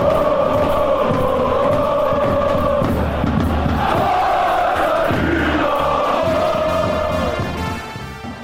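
A large crowd of football fans chants in unison from the stands, a loud, sustained sing-song roar with rising and falling melodic phrases that tapers off slightly at the end.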